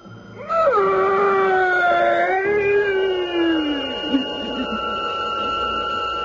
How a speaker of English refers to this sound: The priest drove the sharpened oak stake through the body. And that fearsome shriek, which still sounds in my dreams, rent my ears.